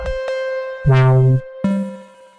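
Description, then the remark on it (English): A synth bass plays a few separate notes, each a thick, buzzy tone with a hard attack. The last note sustains and slowly fades. No one speaks. “Really nice bass.”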